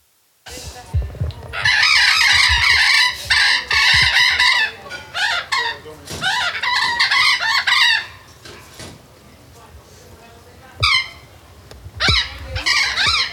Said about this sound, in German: Was ihr im Hintergrund hören könnt, ist der ähm, allseits bekannte Felsensittich. Ziemlich lautstarkes Exemplar haben wir hier.